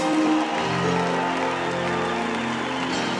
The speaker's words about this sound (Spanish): Si les ha gustado el show de la gente rana, un aplauso para los, mis compañeros músicos.